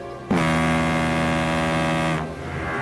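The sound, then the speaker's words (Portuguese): A single long, loud horn blast from a fishing boat in the open sea, droning steadily for nearly two seconds over a low rumbling background before cutting off. “A buzina vem de um barco pesqueiro, né?”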